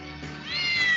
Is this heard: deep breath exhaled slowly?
no